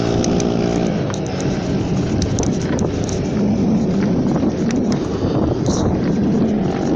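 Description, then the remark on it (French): A scooter engine drones loudly, its buzzing motor tone strongest at the start, then blending into a steady roar mixed with gusty wind rumble on the microphone. “Et le connard en scooter toujours pas de claque.”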